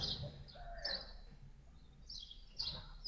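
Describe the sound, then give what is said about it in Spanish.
Small birds chirp in short, bright bursts spread across a few seconds in a park, with an owl also present and a soft low murmur of outdoor background underneath and no one talking. “Ahora, escucho, que escucho que estás en un lugar con pajaritos y por ahí un búho.”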